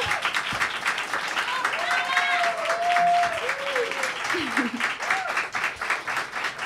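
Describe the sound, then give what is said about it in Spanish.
The live audience of the first program of the second season of the show Histéricas Históricas applauds steadily throughout, a dense, crackling wash of many hands clapping at even loudness, with a few whoops and voices rising above it partway through. “Esa é aplauso.”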